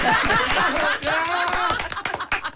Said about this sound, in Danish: Følg, jeg klapper selv.